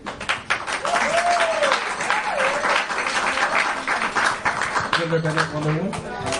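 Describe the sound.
A crowd applauds steadily throughout a cosplay costume presentation, a dense wash of clapping with scattered whoops and cheering voices rising over it, and a brief tonal sound near the end.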